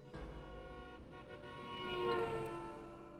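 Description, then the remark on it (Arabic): A speeding car's horn blares in one long, continuous honk that swells louder as the car rushes past, peaking near the end before starting to fade, with a faint engine rumble underneath. “وبيظل موجود عشان يخلي الإنسان ينحاش من سيارة مسرعة مثلا”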